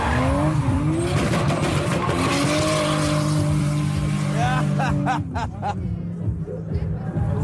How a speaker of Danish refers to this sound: bagenden af selve driftingbanen er der fuldstændig fyldt op, og nu kommer bilerne forbi igen her.